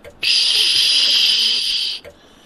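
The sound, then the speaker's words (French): A loud burst of steady static hiss switches on abruptly, holds for nearly two seconds with a bright, airy texture, then cuts off sharply, leaving near silence. “Hello, il y a quelqu'un Silence. Puis bruit blanc.”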